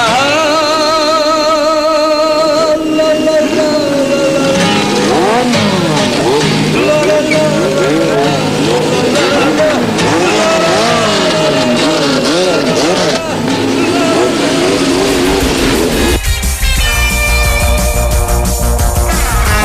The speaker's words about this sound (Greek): Ακούσαμε το εισαγωγικό τραγούδι από τι φυλακέ ανηλίκων.